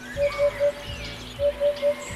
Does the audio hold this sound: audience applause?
no